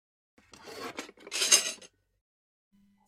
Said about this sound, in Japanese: そう言うと彼女はハサミをそっとテーブルに置いた。